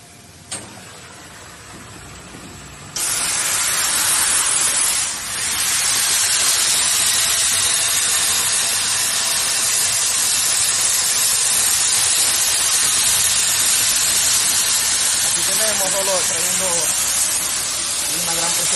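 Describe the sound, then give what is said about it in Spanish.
On an industrial processing line, after a roller that removes water, a chemical solution flowing automatically from a tank through an applicator tray sprays in a loud, steady, high-pitched hiss that kicks in after a quieter opening few seconds, dips briefly, then runs continuously to the end. “en esta parte, aquí, tenemos el químico aplicándolo directamente a la cola”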